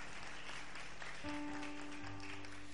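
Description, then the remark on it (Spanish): A crowd applauds with steady, dense clapping that fills the whole clip, while a sustained musical tone enters partway through and a lower held note joins near the end. “Aplaude porque esto es palabra viva, literal.”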